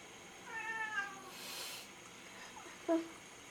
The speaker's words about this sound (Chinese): 好真实哦，我们家的猫在叫。